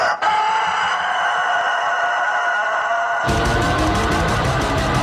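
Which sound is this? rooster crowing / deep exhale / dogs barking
rooster crowing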